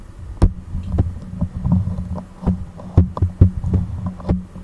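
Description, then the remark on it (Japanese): A plastic grip is pulled off a handheld device, making a run of sharp clicks and knocks over a low, muffled rumble of handling noise. “ごめんねうるさくて ごめんねうるさくてなんかノイズの多い回だなって思ってくださいねごめんなさいね今ねグリップを外しましたこれを机の上に置いてみるね”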